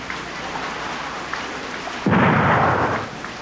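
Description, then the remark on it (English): Steady rain-like hiss runs throughout a song recording, then a single loud gunfire blast used in place of thunder bursts in and rumbles for nearly a second before fading back into the patter. “There's no thunder, so he used gunfire.”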